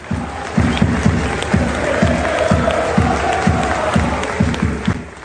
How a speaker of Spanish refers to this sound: En vez de hacer un minuto de silencio y que se escucharan algunos gritos de protesta, la organización decidió hacer en este partido un minuto de aplausos a la reina. Los aficionados del Celtic de Glasgow comenzaron a cantar, se oye de fondo